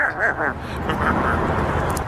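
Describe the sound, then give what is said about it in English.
A voice mimics a car engine cranking and turning over when asked to help start the car, a rough rhythmic sputter that settles into a steady rumbling idle, fairly loud. “Can you help me start the car?”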